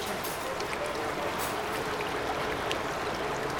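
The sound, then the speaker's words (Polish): The Tanew River rushes steadily over its famous rapids, which UNESCO lists as a unique phenomenon. A continuous broad roar of churning water with small splashes, fairly loud throughout, with no one speaking. “Tutaj widać w pełnej okazałości rzekę Tanew i te słynne progi, które zostały zarejestrowane jako unikatowe zjawisko na liście UNESCO.”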